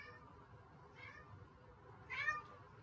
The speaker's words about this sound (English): Why is my cat screaming at me? I can't help you, buddy.